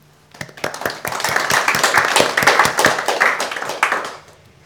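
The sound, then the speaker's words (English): A round of applause at a prize giving, an audience thanking a young person: many hands clapping in a dense, crackling patter that starts suddenly, holds steady and fairly loud for about four seconds, then tapers off. No voices are heard. “Um, so, as we go through each person individually, if we give them a round of applause to say thank you.”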